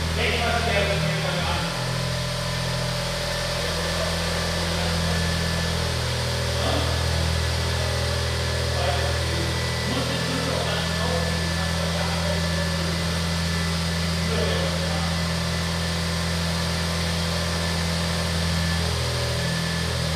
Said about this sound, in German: So, das Brummen, was ihr hört, das, ob ihr es glaubt oder nicht, ist der Smart Roadster